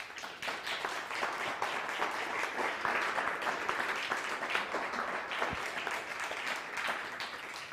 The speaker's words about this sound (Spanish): Ok, dale un fuerte aplauso al Eterno.